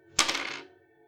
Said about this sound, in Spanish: Vale, haz una tirada de juego de manos, pero con dado de bonificación. Vale, mira, Vale, con dado de bonificación, como era? O sea, con dos dados de decenas y te quedas el mejor resultado.